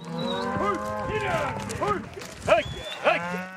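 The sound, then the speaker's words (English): Hundreds of cows and calves moo over one another during the Green River Drift cattle drive in Wyoming, just after dawn in late June, overlapping low and higher-pitched calls forming a steady din, with a couple of louder bellows standing out near the end. “Just after dawn, one Saturday in late June, I'm trying to help Wyoming rancher Albert Sommers and his team move hundreds of cows.”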